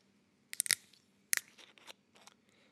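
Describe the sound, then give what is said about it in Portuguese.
A bottle of Pingo Doce natural carbonated mineral water being opened: a quick cluster of sharp, crackly clicks, another sharp snap a moment later, then softer scattered ticks and rustles. No one speaks. “Olha, acabei de abrir uma água das pedras falsa do Pingo Doce.”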